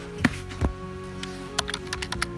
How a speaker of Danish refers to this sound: Det er mig, du kan høre her, der klikker rundt i den gigantiske avisdatabase, de har liggende.